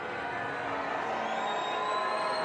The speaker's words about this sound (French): Un accueil plein d'amertume pour les enfants terribles de la monarchie, sous des huées